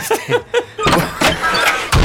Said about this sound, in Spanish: Esa fue una puerta.